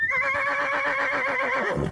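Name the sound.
horse neighing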